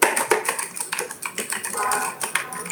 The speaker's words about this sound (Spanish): Este es el teclado mecánico.